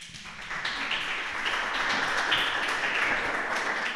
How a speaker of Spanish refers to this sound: Sí, adelante, un aplauso, por favor.